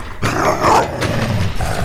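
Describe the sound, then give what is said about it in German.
A giant's wild dogs growl and snarl loudly on a mountainside as golden and silver collars are put on them, a continuous, rough burst with harsh bark-like outbursts mixed in, starting after a brief quiet moment and no one speaking. “Er fand den Riesen an einem Berghang, wo er seinen wilden Hunden goldene und silberne Halsbänder umlegte.”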